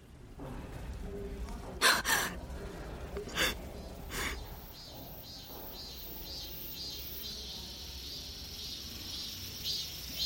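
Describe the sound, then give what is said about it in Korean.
Cicadas drone outside a window in a steady, shrill, pulsing buzz throughout, a few short breathy bursts cutting in over the first few seconds. “매미가 창밖에서 비명을 지르듯 울어대고 있었다.”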